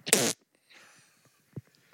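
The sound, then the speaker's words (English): A loud, buzzy mouth-made fart noise blurts out for a quarter second, followed by a breathy sputter and two soft low thumps trailing off. “A fart noise.”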